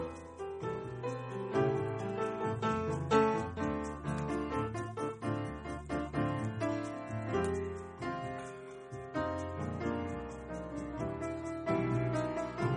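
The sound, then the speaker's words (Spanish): A short instrumental melody plays on its own, a full arrangement with a bright lead line over steady rhythmic accompaniment, loud with no one speaking. “una bonita melodía que suena más o menos así en políticamente correcto”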